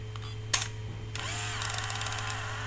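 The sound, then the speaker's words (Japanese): A single sharp shutter click of a film camera, followed half a second later by the whirring buzz of its motorized film advance automatically winding the film, running steadily with faint rhythmic ticks over a low steady hum. “うん今みたいな音ですもう一回いきますえー、取った後にすぐこうウィーンガチャンガチャンとあのフィルムをね自動で巻き取ってくれるとなのでこれは連写もできちゃうというね、えー、ものです”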